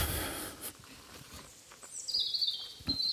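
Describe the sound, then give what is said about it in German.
Faint, high-pitched bird chirps and twittering notes, starting after an initial burst of noise, with scattered short calls over a quiet background and no talking. “Ja, ich mache noch ein bisschen Vogelgezwitscher und dann mache ich Schluss hier.”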